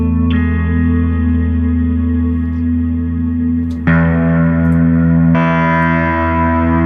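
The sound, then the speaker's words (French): Ambient electric guitar played through a Valhalla Vintage reverb plugin, washed in lush vintage-style reverb, sustained swelling chords that shift about three times, each blooming into a dense, shimmering tail. Loud and continuous, with no talking. “Ambient de guitare. Ça c'est la vintage verbe.”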